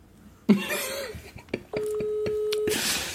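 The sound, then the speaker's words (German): A single steady telephone ringing tone hums for about a second during a call that has not yet been answered, preceded by a sharp cough and some faint clicks and rustling. “Es, nein, es klingelt noch.”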